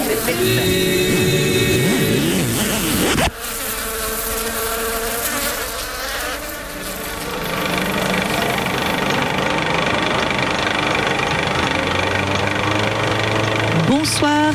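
An electric generator engine runs loudly and continuously, a buzzing, droning hum with whining tones that shift partway through, ending with a brief sharp burst.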